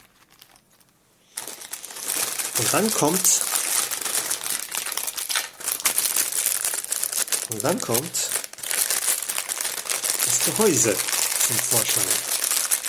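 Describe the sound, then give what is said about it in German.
Loud plastic crinkling and rustling runs almost continuously as a plastic bag holding chip coolers is handled and unpacked, with a man speaking briefly over it a few times. “Wir legen die Tüte mit den Kühlern mal hier vorne hin.”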